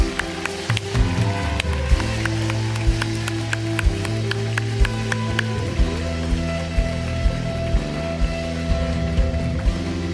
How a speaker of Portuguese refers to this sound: E eu queria que vocês olhassem para trás, porque essas palmas são para vocês.